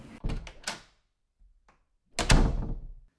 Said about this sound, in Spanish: Cierra la puerta, por favor.